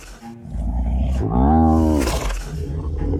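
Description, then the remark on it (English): A huge beast with sharp, curved claws, slowly advancing on its prey, lets out a deep, rumbling growl that swells into a loud roar before trailing off, with low grumbling continuing afterward. No one speaks. “The animal was slowly advancing, growling with pleasure on seeing his coveted prey so near to him”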